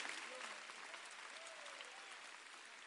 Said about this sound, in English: Because well, you can clap your hands if you feel like clapping it. There's nothing wrong with it.